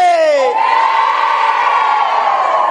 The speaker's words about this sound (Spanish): Yo creo que son las mujeres. Las mujeres son las que están gritando más duro.